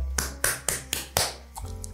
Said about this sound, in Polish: Drzwi są natomiast zamknięte. Yy, puka w niem dosyć mocno.